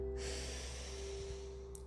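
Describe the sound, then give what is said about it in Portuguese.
Audible breathing during a posture exercise with both arms raised above the head: a sharp nasal intake flowing into a long, steady, airy exhale through the mouth, loud and continuous, with a faint steady hum underneath and no talking. “Inspira pelo nariz, solta pela boca, forcinha extra.”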